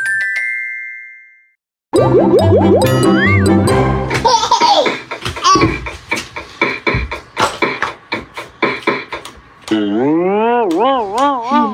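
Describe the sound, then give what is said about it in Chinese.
A single bright note from a colorful metallophone rings and slowly fades, then gives way to lively childlike giggling, squeals and sing-song voices that swoop up and down in pitch. “哇，缤纷的铁琴完成喽！它叮叮咚咚的声音清脆响亮。”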